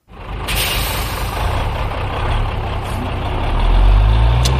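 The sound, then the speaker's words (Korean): A voice imitates a one-ton truck with a broken steering wheel, making a steady, loud, gravelly engine rumble with a hissy edge. It holds for a few seconds and swells slightly toward the end, with no talking. “난 핸들이 고장난 1톤 트럭.”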